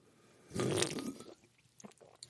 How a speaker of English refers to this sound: If you don't mind, I'm going to take a sip off of my drink.